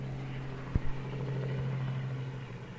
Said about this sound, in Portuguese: Seu helicóptero chegou, você tá indo embora? Isso. Ah. Deixa passar.